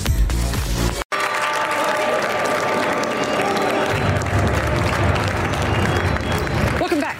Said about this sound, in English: and you're looking at clapping, smiling faces back at the New York Stock Exchange